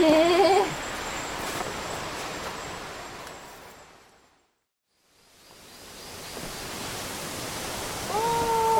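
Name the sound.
waterfall rushing water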